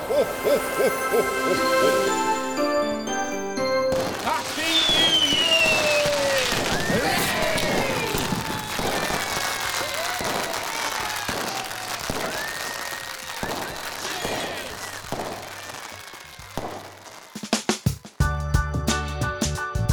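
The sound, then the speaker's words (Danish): Fireworks sound effect: a whistling rocket streak followed by a run of sharp crackling pops and bangs at irregular intervals, framed by short bursts of music at the start and end. “Kan du indsætte nogle lydeffekter med noget, øh, med noget fyrkeri og nogle, nogle prop, da, prop, og sådan Lydeffekter ja.”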